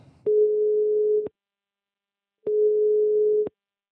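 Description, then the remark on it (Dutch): A telephone ringing tone on an outgoing call: two steady, mid-pitched beeps, each lasting about a second, separated by a short silence. No voices. “We gaan hem bellen.”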